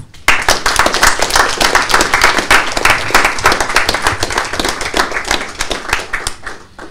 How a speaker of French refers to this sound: Et puis je pense qu'on peut applaudir tous ces partenaires et tous ces acteurs.